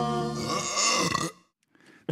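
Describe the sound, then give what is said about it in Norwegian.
A loud, deep, drawn-out burp rumbles for over a second, rich and gravelly, then cuts off, followed by a brief quieter breathy sound. “Jeg ble fysisk dårlig av å høre på sånn raping.”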